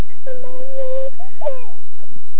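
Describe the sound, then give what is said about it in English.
A child cries in a sustained, high-pitched wail that holds steady, then breaks into a shorter, wavering sob before trailing off into quiet. “There's a crying I'm, child.”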